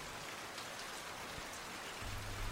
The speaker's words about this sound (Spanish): Despacio, como en puntas de pie, comenzó a llover. El beso de la lluvia, multiplicado millones de veces, levantó del suelo agradecido el olor a tierra húmeda.